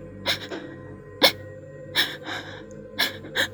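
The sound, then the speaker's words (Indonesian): A voice imitates a woman's gasping sobs: five or six sharp, breathy catches in the throat, spaced unevenly over a few seconds, moderately loud with no other talk. “nangisnya tuh kayak terisak gitu jadi nangisnya kayak”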